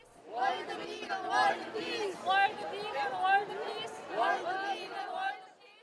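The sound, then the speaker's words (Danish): A crowd of Japanese women shouting together in loud, overlapping bursts, their raised voices surging and dipping in waves with no quiet gaps, demanding a vegan food requirement to save the climate. “så her lyden fra en flok japanske kvinder, der kræver indført et krav om vegansk føde for at redde klimaet.”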